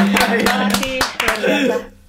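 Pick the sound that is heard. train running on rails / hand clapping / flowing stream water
hand clapping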